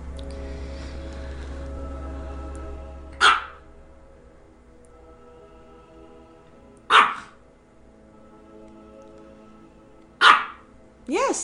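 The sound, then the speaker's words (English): A dog barks four times, with single sharp, fairly loud barks spaced a few seconds apart, the last two coming closer together, over a low background hum. “Bark five times.”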